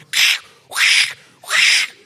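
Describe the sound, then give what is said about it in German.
A man lets out three high, squeaky cat-like cries of joy in an even rhythm, each about half a second long with short gaps between them, fairly loud, with no talking. “Und dann denken die immer, ist eine Katze oder so? Nee, da freue ich mich gerade. Ich, ich, ich fiebe manchmal so.”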